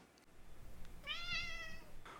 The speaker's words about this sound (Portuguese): O gato miou.